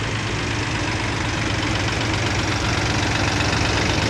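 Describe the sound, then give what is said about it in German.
A New Holland tractor engine idles steadily, a continuous low rumble with a faint knocking vibration that holds at an even, fairly loud level throughout, with no voices. “Tja, von unten kommt einer sehr schnell. Ohne Landwirtschaft wärst du hungrig, nackt und nüchtern, steht hier der erste Trecker aus New Holland.”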